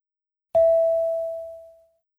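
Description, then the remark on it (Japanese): A single clear chime tone, the cue for the listener to speak in a Japanese conversation exercise, strikes sharply and rings out as a steady, pure pitch, fading gradually over about a second and a half, heard alone with no talking. “Speak after the tone.”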